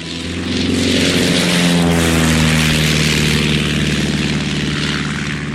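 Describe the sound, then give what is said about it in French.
A propeller airplane engine drones steadily and loudly, its low rumbling hum holding a constant pitch with a buzzing harmonic whine throughout. “Un avion, c'est plus difficile à conduire qu'une voiture oh, Tout ça, ce sont des moteurs.”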